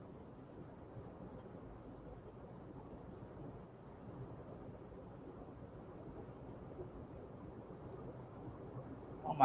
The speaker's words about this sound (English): It is raining so bad now. I can hear it. You can hear it. I can hear it. Very, very lightly. I can hear it. So it's going to be like pounding on your on your house.